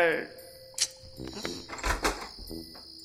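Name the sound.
door being opened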